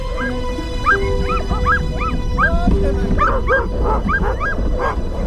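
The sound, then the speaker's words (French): A pack of sled dogs barks and yips excitedly in a rapid, overlapping chorus, with high whimpers and whines mixed in, loud against a low rumbling background. “Trois agents partent alors pour une randonnée de deux jours en traîneau à chien jusqu'à la cabane du trappeur.”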